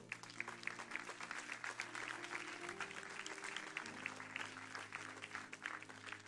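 An audience claps and applauds God steadily for several seconds, a dense crackle of many hands, with a sustained low organ or keyboard chord humming underneath.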